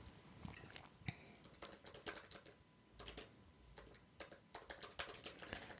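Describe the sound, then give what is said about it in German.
Quick, uneven bursts of keyboard typing as someone writes down a note, clicking keys tapped in short clusters with brief pauses, fairly quiet, with no voices over it. “Oh, muss ich aufschreiben.”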